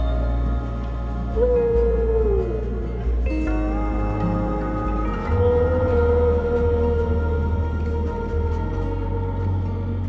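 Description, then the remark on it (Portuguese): Long, mournful whale calls slide and bend in pitch over a deep, steady drone, with a few sustained tonal moans layered on top and no one speaking. “Recebam a energia das baleias.”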